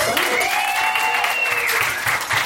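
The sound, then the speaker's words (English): A crowd claps and cheers steadily as a show's second guest is brought in, a dense wash of applause filling the whole moment, with a few whistles or shouts rising above it. “Let's hear it for”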